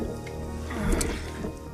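Thick, wet squelching of toxic waste sludge, continuous, with a louder gloopy burst near the middle and no voices.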